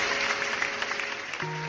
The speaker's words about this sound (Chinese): 同学们，让我们掌声欢迎新同学羊驼拉拉来我们班。